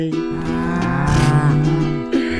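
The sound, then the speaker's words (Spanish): A cow moos once, a long, deep, loud bellow that rises slightly in the middle and lasts about two seconds, with no talking over it. “Acuérdate de tomar sol todos los días y de mugir a la luna cuando estés triste.”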